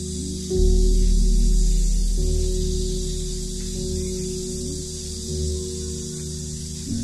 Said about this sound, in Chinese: 听见了吗？这个蝉鸣，哇，好热，出门要化掉了。